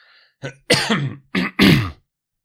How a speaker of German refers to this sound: Ich räuspere mich.